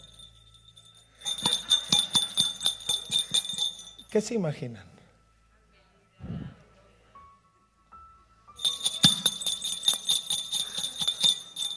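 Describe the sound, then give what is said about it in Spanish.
Rapid, bright jingling of small bells on a sweater in two bursts, fairly loud, with a short spoken question between them. “Yo necesitaba un casabel y él salió con este suéter.”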